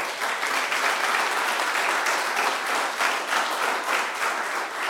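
An audience claps for the Lord during a sermon, a dense, continuous wash of many hands applauding at a fairly loud, even level for the full five seconds, with no voices standing out.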